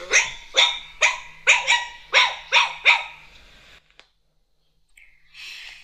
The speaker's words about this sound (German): Chihuahua.